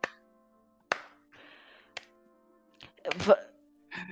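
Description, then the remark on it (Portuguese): Slow hand clapping: about five or six sharp, separate claps spaced roughly a second apart, with faint murmuring voices filling the gaps between them. “Eu vou aplaudir, mestre. Tô aplaudindo.”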